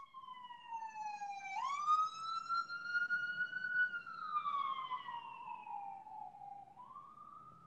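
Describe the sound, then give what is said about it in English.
A police siren wails outside, sweeping up and holding high before sliding down and rising again, fairly loud over a low traffic rumble, with no one talking. “Well, hang on. Sirens.”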